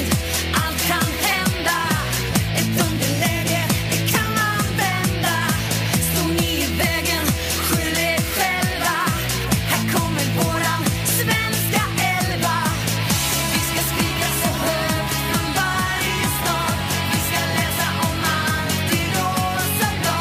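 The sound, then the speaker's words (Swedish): An upbeat pop song, sung together with the women's national football team, plays loudly and continuously, with sung vocals over a steady bass line and full band backing, and no talking over it. “tillsammans med damlandslaget sjunger …”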